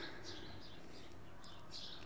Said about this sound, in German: Ich hoffe, dass es nicht so stört, die Störgeräusche, also dass ihr diese Störgeräusche auch eher als schön wahrnimmt, weil man hört ja die Vögel zwitschern und ein paar Kinder spielen und ein bisschen die Straße,